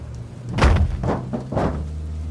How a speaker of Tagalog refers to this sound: Ano yun? Pa- parang may bumagsak sa bubong ah. Baka pusa lang. Pusa? Parang ang lakas naman niya.